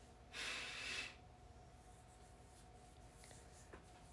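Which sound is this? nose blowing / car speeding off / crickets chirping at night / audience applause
nose blowing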